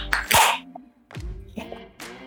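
A noisy small sip of beer with a brief fizzy, airy burst, followed by a few throaty, satisfied exhalations and vocal sounds, without any talking.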